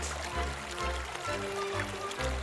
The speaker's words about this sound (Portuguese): Desejando que a água nunca mais parasse de correr, as pessoas começaram a cavar um buraco por debaixo da rocha e abriram uma pequena barroca deixando correr a água livremente.